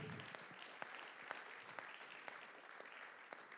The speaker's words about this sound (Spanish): Gloria a Dios, dele, palmas al rey.